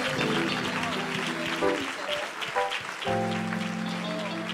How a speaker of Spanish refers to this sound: así que aplauda a Dios por la vida de esos niños.